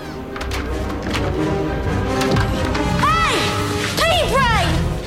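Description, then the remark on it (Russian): Heavy wooden crashes and splintering impacts, loud, come in a chaotic jumble while high-pitched screams rise and fall over the din, as a troll swinging a club smashes a row of wooden toilet stalls in a restroom. “Тролль машет дубиной и рушит стоящий в ряд кабинки.”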